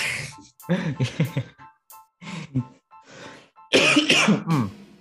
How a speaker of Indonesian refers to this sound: Kayak batuk gue.